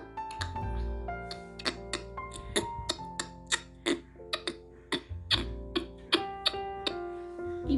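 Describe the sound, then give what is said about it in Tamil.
Two frogs in a small pond croak as they play, in short, sharp, knocking bursts repeating in an uneven rhythm over a steady musical backdrop of sustained tones, clear with no talking. “இப்படி சத்தம் கொடுத்து ரெண்டு தவளையும் எப்போ பாரு விளாண்டுட்டே இருக்கும்”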